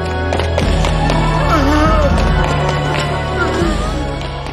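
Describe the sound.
Steady footsteps of men approaching in a cave thud along at a walking pace over a low droning hum, with muffled voices murmuring underneath throughout.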